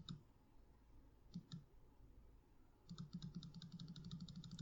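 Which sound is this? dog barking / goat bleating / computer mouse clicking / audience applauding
computer mouse clicking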